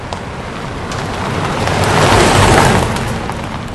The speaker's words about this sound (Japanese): 車はサワンドの駐車場に到着した